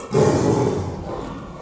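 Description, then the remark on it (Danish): Young tiger siblings snarl and growl at each other over their food, one reacting to its sister coming too close: a rough, sustained rumbling snarl that swells quickly and rolls on continuously, loud, with no talking. “Jeg kan høre, de øh, ligger og snærer hinanden, fordi de vil altså have deres foder i fred.”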